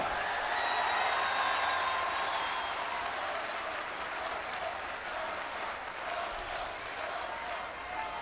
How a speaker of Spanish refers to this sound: A ver, así como él pidió un aplauso, un aplauso para el gobernador de Nuevo León.